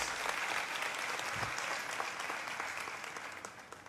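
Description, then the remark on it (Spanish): A large crowd claps steadily for the volunteers, servers, pastors and leaders, a dense wash of applause at a fairly loud level that gradually softens toward the end, with no talking over it. “Por favor, ayúdeme a darle un fuerte aplauso a cada uno de nuestros voluntarios, sugieres, servidores, pastores, líderes.”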